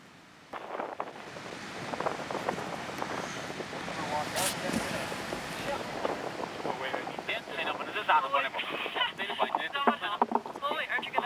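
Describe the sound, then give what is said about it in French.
A waterfall beside the Ngonzumpa glacier in Nepal roars steadily near the listener at 7 a.m., a dense, continuous rush of falling water with splashing texture and gusts of wind, while indistinct voices blend faintly into the noise. “Alors, Ngonzumpa, près d'une cascade.”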